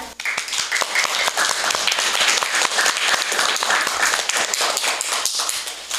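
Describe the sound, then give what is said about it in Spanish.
A crowd applauds steadily for about six seconds, welcoming a reader about to recite a poem of the revolution, many hands clapping in a dense, crackling wash with no voices rising above it. “Aplausos”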